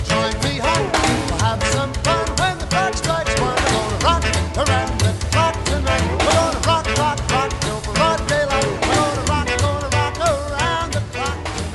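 A 1950s rock and roll song plays loud and steady throughout, with a driving rhythmic beat and what sounds like a singing voice over a full band.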